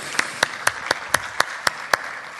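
A short burst of applause: sharp, evenly spaced claps in a steady rhythm over a soft wash of background clapping, fairly close and moderately loud, with no voices.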